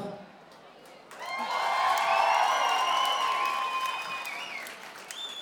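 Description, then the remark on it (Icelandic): Applause from an audience for performances that have just finished swells after about a second and holds steady, mixed with cheering and whoops, then gradually tapers near the end. “Ef við ekki að klappa enn og aftur fyrir þessum frábæra atriðum sem eru búinn.”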